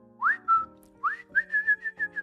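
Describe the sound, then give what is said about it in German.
A person whistles a short, lilting tune: two rising swoops, then a quick series of bright, even notes, with a faint steady hum underneath. “freut sich, wenn ihm die Wochendämmerung was pfeift”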